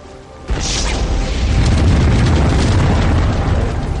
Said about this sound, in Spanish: Cuando la estrella explotó, lanzó al espacio los elementos básicos que componen nuestro universo.